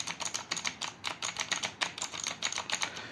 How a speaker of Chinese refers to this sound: 比如说，接键盘通常分为有那种二段感的轴体，比如说青轴、啊绿轴、奶轴这种，它是二段感的。啊，大概敲击起来的声音就是类似这种，它是二段感的啊。如果是你连续打字的话，就是这种。